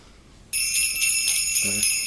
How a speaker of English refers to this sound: Uh, but this has proven to be one of my favorite Christmas songs every year.